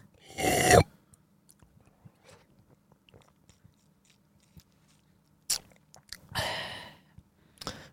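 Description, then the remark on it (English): Mouth sounds of a man drinking mineral water: a slurping sip at the start, faint swallowing clicks, then a few more sips and a breathy exhale near the end, with no talking. “That's what he's he's drinking it now.”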